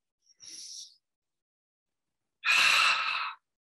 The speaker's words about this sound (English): And do some deep diaphragmatic breathing right now. A couple of big deep breaths.